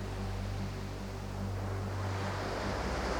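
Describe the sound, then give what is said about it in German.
Soft, steady ocean surf washes continuously with a breathy wind underneath, a broad gentle rush at low volume with a faint low rumble and no voices. “Konzentriere dich auf das leise Rauschen des Meeres.”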